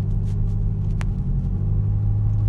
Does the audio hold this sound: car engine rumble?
yes